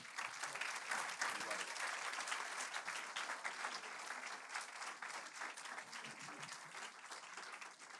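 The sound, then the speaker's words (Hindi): Steady audience applause fills the whole stretch, a dense patter of many hands clapping at a fairly even loudness, with no voices standing out above it. “तालियां कुछ कम लग रही हैं”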